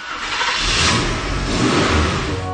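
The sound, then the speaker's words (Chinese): A bus drives along at night with a steady, loud rumbling engine drone and a broad roar of road noise, holding evenly throughout with a slight rise in revs midway. No one speaks. “公共汽车在夜色里行驶着”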